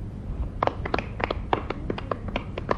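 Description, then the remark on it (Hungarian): Sparse, scattered handclapping from a few people in an audience as a first prize is handed over at a contest, about a dozen sharp, irregular claps over a low background rumble, fairly loud. “Átnyújtja, a vörös vérsejt ruhagyár vezérigazgatója lehet tapsolni az örömtől.”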